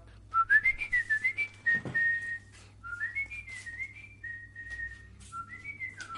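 A person cheerfully whistles a bright, bouncy melody while setting off along the road to the next castle, with quick sliding notes and short pauses between phrases, over a low steady hum.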